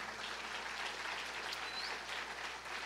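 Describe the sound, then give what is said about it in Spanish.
Steady audience applause for the young people in the booth who had been rehearsing since early, a dense wash of many hands clapping at a fairly even level for a few seconds, with no one speaking over it. “Un aplauso a ellos, por favor.”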